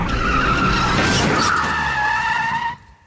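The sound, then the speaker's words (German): A car brakes hard on the last left curve just before Tempelhofer Damm as an oncoming car shoots toward it, a loud, sustained, harsh tire screech lasting a few seconds, then cutting off abruptly into near silence. “Du bremst scharf und hältst deinen rechten Arm schützend vor meine Brust, in dem rührendsten Irrglauben, dass deine Armschranke mich vor ernsthaften Verletzungen bewahrt.”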